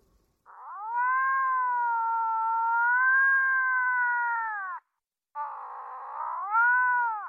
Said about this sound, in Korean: 수화기를 통해 들려오는 고양이 울음소리. 나를 향해 하는 말인 것처럼 고양이는 길게 울고 또 울었다. 그 소리였다.